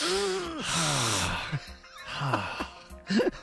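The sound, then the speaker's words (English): A voice acts out a stubbed-toe reaction: a sharp, breathy suck of air and a strained, wavering vocal hiss, fairly loud, followed by a couple of shorter pained breaths. “You kind of sort of like a suck in and hiss.”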